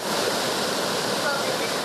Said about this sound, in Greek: Φαίνεται η ορμή του χυμάρου που παρασύρει τεράστιου κορμού δέντρων.